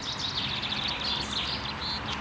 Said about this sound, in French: Là, on entend le pinson qui était juste au-dessus de nous, et puis la fauvette à tête noire qui est quelque part par là. Il faut savoir que dans le parc des Buttes-Chaumont, il y a une trentaine d'espèces qui nichent